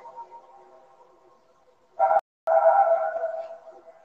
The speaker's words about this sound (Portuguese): Não é eco, Heitor, é a música